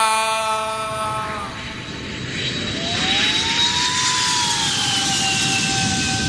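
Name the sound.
jet airplane landing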